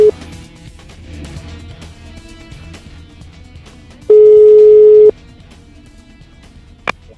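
An outgoing call's ringing tone: one steady, loud one-second beep after a long pause, with the tail of an earlier beep at the very start and faint line noise between.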